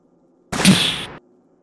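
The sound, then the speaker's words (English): A single lone gunshot cracks out once in the distance, a harsh, broad blast lasting under a second before cutting off abruptly, with near silence on either side and no voices. “somewhere out in the distance, you hear”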